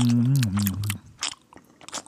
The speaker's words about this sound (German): ich schmatze hier so nebenbei so ein Kaugummi, weil ich immer so einen trockenen Mund bekomme